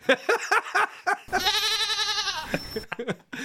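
A single loud, wavering goat bleat rings out for about a second, with a person's speech just before and after it.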